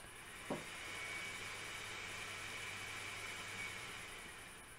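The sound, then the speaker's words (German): A black coupé rolls up and slows to a stop, its low engine rumble steady under a wash of hissing noise, with a brief knock near the start; fairly quiet, no voices. “Du guckst aus dem Fenster, siehst ein schwarzes Coupé vorfahren, gerade bremsen.”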